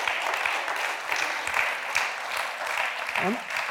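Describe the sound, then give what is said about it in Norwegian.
Sustained applause from a crowd clapping for a group of leaders, a dense rattle of many hands clapping steadily and fairly loud, with a brief voice rising through it near the end. “Altså, klapp for dem, da! Klapp for dem!”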